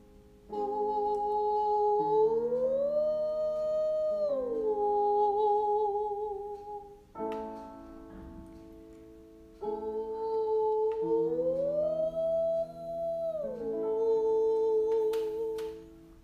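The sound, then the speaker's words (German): A clear, bright voice sings sustained high notes using little air, sliding up and back down in two repeated phrases of a vocal exercise over a soft, steady accompaniment, with no talking. “So, du hast gehört, wie klar ich diese Töne gesungen habe.”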